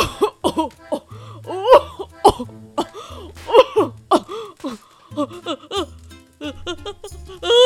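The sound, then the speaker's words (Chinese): A series of loud, explosive sneezes from a sick white-haired old man lying on a sofa by a fireplace, each a sharp voiced burst, some with a drawn-out wheezy lead-in, repeating over several seconds above soft, low background music. “白发老人又打了一个超级无敌大声的喷嚏了。”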